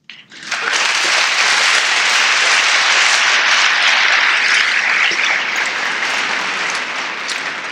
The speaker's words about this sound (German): Und ich denke, er verdient einen besonderen Applaus, dass er dies in Deutsch versuchen wird.